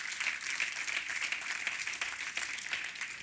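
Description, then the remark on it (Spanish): An audience applauds loudly for the Lord during an evening sermon, a dense wash of many hands clapping at once with no pauses, sustained and fairly even in loudness throughout. “¿Por qué no le da un aplauso fuerte al Señor esta noche?”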